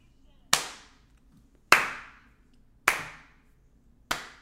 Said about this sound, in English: That deserves a slow clap.